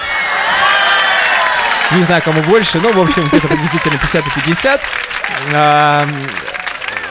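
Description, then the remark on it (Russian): A crowd applauds and cheers loudly, a dense wash of clapping with scattered whoops, while a man speaks over it and another voice rises near the end. “Ладно, в общем, было э, почти весело, нам аплодисменты.”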